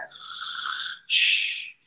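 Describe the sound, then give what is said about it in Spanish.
A young man who has fallen asleep snores twice: a longer rasping inhale followed after a brief pause by a shorter airy exhale, with no talking. “Está roncando y hasta graba así como la nota de voz roncando el chavo, ¿no?”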